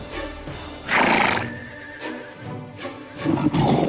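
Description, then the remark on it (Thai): A horse in a king's stable whinnies loudly with a shrill, wavering neigh, while hooves clip-clop in an uneven rhythm. A second neigh rises near the end, and no one speaks. “พระราชาจึงทรงให้สร้างโรงม้า แล้วเลี้ยงม้าด้วยหญ้าด้วยน้ำภายในโรงม้านั่นเอง”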